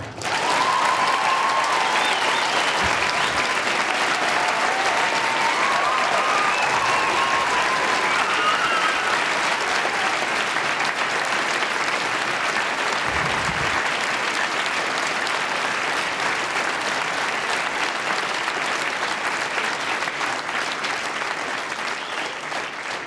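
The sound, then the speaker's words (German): Sustained, dense applause from a large audience, steady and loud throughout, with occasional faint whistles and cheers rising above the clapping. “Ah willkommen. Applaus.”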